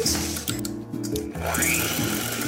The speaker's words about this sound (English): I'm actually going to do this in a handheld mixer because it's easy. See, I'm putting these little hand beaters in.